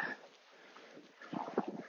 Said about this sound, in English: oh, there's a dog, dog walker coming, possibly observing me. It's the Labrador guy,